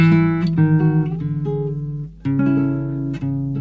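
A folk song's instrumental intro plays: sustained melodic notes shifting pitch every half second or so, loud, with a brief dip near the middle before the tune resumes. No voices.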